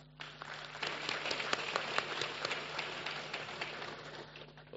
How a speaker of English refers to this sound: We are complete like that with our production team. Please give us a round of applause.